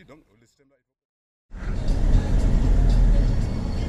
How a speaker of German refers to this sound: Die Fahrt geht weiter, mitten durch Wohngebiete über sandige Straßen. Teilweise stehen die Häuser so eng zusammen, dass die Autos kaum durchpassen.